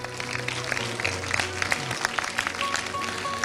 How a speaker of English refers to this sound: let's begin to clap our hands right now, believing God there is He able to do it.